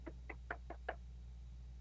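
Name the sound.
knocking on a door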